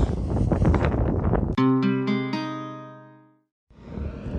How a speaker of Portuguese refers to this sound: Uau, vai ser um dia tenso. Tá forte o vento.